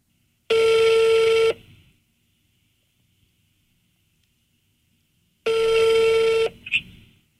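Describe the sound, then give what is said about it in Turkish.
Two loud, steady ringback tones of an outgoing phone call, each about a second long, separated by a long silent pause, clear with no one speaking, the second followed by a brief click. “Dur bakayım şöyle. Heh aradı.”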